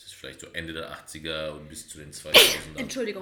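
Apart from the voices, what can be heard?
sneeze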